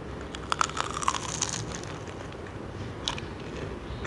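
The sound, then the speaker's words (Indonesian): Crisp crunching from biting into a crunchy fried hotdog with the original coating: a cluster of crackly bites early on, a quieter stretch of chewing, then one more sharp crunch near the end. “Hmm, gurihnya pas kriuk banget kedengeran kan aduh gue sampai susah ngomong daripada kalian cuman ngiler dengerin gue makan hotdog”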